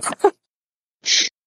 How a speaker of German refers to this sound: Äh, muss ich niesen. Moment.